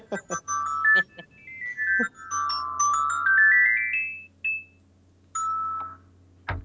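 A short, bright xylophone-style jingle introducing a game segment: a quick run of chiming notes climbing in pitch, then a brief pause and a final tone, clear with no talking over it.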